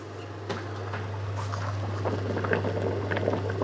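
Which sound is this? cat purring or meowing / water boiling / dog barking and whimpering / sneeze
water boiling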